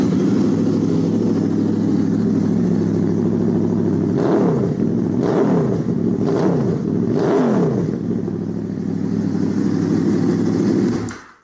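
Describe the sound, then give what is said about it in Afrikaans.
A V4 motorcycle engine with gear-driven camshafts, based on the RC45 RVF 750 World Superbike and fitted with non-standard Laser exhausts, one pipe per cylinder, idles with a steady, throbbing rumble, then is revved sharply four times in quick succession, each blip rising and falling before settling back to idle. Loud, no voices. “So ja, hy het daai gear-driven camshafts en uh, natuurlik daai unieke geluid, maar uh, ek moet hom gou vir julle staar.”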